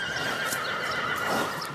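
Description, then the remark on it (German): A horse whinnies steadily, its bright, wavering neigh carrying over a faint clatter of hooves, loud, with no voices present. “Die Welt der Pferdemenschen ist vielfältig. Hier ein kurzer akustischer Einblick.”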